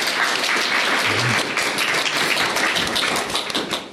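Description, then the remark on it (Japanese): A crowd at the PHPer Kaigi 2019 event, during a live public recording, breaks into steady applause, many hands clapping in a dense, crackling wash that holds at an even, fairly loud level for the whole stretch. No one speaks over it. “あの、この拍手が入って、あの、聞いてる方もお分かりかと思うんですが、今回はですね、えー、ペチパー会議2019というですね、イベントの一角をお借りして、えー、公開収録という形でですね、えー、収録を行っております。”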